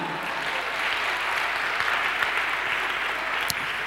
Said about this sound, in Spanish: A su nombre, gloria, dale un aplauso al Señor, hermano.